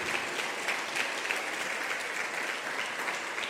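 Steady, dense applause from a crowd, many hands clapping at once in a continuous wash of sound that holds at an even, strong level throughout.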